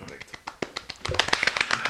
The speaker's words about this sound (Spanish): ah, ahora todo tiene sentido. Aplausos húmedos. Sí, aplausos.